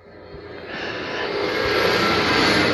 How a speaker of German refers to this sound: Hm, Trecker, okay. Ä Hast du das Fenster auf? Oder ja. Draußen?